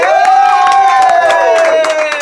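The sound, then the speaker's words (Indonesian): Audience applause welcoming a guest, a young actor: a steady patter of many hands clapping, with a sustained cheering tone running over it for a couple of seconds. “Tepuk tangannya jangan malas.”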